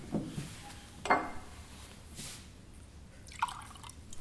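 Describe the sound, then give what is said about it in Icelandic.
Liquid being poured into a glass to drink, in a few short, quiet bursts, with soft splashes and light drips against a hushed background; no one speaks. “og það getur einhver hermt eftir því að ég, að, að, eins og ég gerir að helli glas og ég vil drekka”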